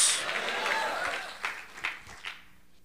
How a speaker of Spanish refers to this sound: Ah, démosle un buen aplauso al Señor. Gloria a Dios.